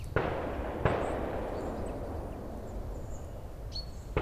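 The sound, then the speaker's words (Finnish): A few sharp bangs from a shooting range on Santahamina island in Helsinki, Finland, ring out against a steady outdoor wash, with faint birdsong chirping between the shots. “Ominaispiirre on linnunlauluun sekoittuva ampumaradan pauke.”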